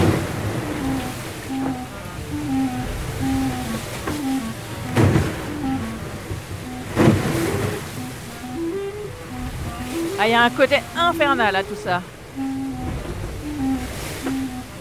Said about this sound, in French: Le bruit, là, je sais pas ce que ça vous évoque, mais quand on ferme les yeux, je pense. Euh, waouh On pourrait se croire dans Moby Dick. C'est très bizarre quand même de se retrouver comme ça tout seul dans une mer déchaînée,